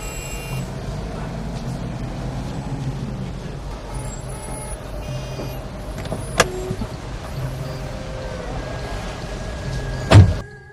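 A Chevrolet car engine idles with a steady low rumble throughout while waiting to leave for the airport, broken by a sharp click partway through and a loud thump near the end, like a car door shutting.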